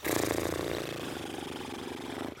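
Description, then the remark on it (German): A person does a loose-lipped lip trill imitating a horse's snort as a warm-up for playing the alphorn: a steady, loud, fluttering buzz with a voiced hum underneath, lasting about two seconds before stopping abruptly. “Das heißt so Lippenfurzen.”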